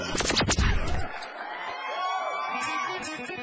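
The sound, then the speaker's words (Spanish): A crowd applauds and cheers to welcome the radio show "El show del patrón", a loud burst of clapping at the start that gives way to sustained whoops and shouting voices. “Los aplausos de bienvenida son para todos ustedes.”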